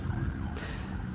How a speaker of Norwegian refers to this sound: Dette er lyden av verdens nest største by i dag. Jakarta, hovedstaden i Indonesia.